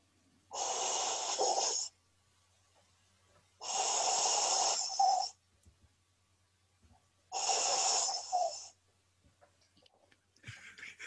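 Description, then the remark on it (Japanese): A voice imitates the breathing sound of a scuba diving mask and regulator: three long, hissing, airy breaths, each roughly a second and a half, spaced by pauses, fairly loud, with no speech. “えっと、じゃあ、のー、ダイビングするときにつけるあの酸素マスクの音の真似します。”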